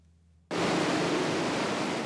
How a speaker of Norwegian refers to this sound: Det du hører her, er dieselaggregatet som driver et oppdrettsanlegg. En svær motor som lager strøm. Akkurat dette aggregatet bruker 75 000 liter diesel i året og spyr ut eksos og støy.